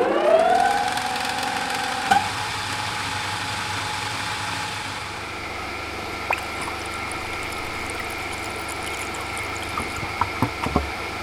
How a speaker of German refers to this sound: So, das war eine von den beiden Wasserpumpen, die wir haben. Denn wir haben ja einen äh, wassergekühlten Dieselmotor. Wir haben 20.000 Liter Wasser zur Verfügung, um den Diesel zu kühlen. Und dieses Geräusch kam von Wasserpumpe 2.